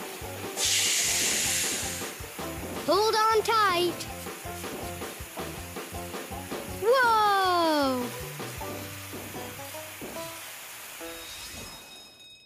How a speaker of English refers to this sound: We'd use a really, really long yellow hose to put out the fire. Okay, water.